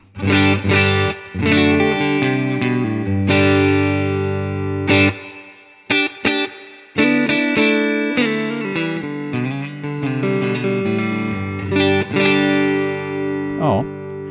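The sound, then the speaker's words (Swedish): A distorted 1987 Valley Arts Custom Pro electric guitar with a chorus shimmer and the warm tone of its neck pickup plays loud, sustained chords with short breaks, alone, ending in a pitch bend. “Hals då? Hals då låter så här.”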